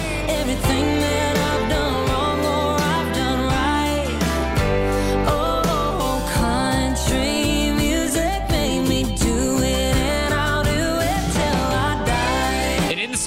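A country song plays loud and continuous, with a full band and a melodic lead line carrying steadily over a strong low end, no pauses or talking over it.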